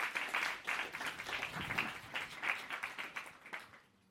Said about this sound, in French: Et là, vous pouvez applaudir.